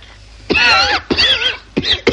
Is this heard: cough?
yes